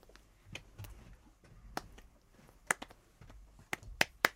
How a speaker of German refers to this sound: Sag mal, ihr drei hier, hättet ihr diesen einen Rhythmus klatschen können? Jo. Wisst ihr den noch? Äh, ja. Klatscht, klatscht mal, versucht's mal.